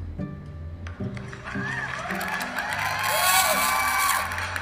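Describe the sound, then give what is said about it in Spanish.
A crowd applauds and cheers, with steady clapping building into a dense wash of noise topped by whoops and high-pitched shouts that stay loud throughout. “Claro que sí, medio de los aplausos.”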